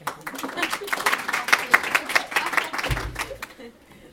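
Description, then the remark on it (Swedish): An audience bursts into applause to welcome a researcher to the stage at a morning talk on motivation and volunteer engagement: a dense, steady patter of many hands clapping for about three and a half seconds before it thins out and fades, with a brief low thump near the end. “Och en applåd.”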